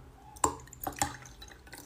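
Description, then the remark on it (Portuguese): Water being poured into a glass, heard as a few bright, ringing splashes and drips spread over a couple of seconds, fairly quiet and with no one talking. “Deixa eu colocar água aqui um pouquinho para”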